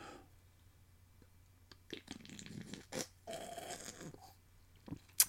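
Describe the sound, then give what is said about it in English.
Sips of a bitter beer, the third sip: a few wet, slurping gulps and swallows in quick irregular bursts, ending with a sharp little click, no one speaking. “we're going in for the third sip.”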